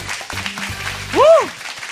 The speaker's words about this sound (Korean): 야, 박수 한번 드리겠습니다.